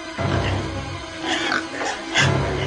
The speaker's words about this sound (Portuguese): Acontece que perto dali estavam muitos porcos comendo.